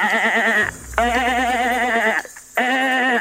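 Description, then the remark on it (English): A voice imitates a goat, sounding like a mountain goat, letting out three loud, wavering bleats in quick succession with brief gaps between them, unaccompanied. “all right, now you sound like a mountain goat.”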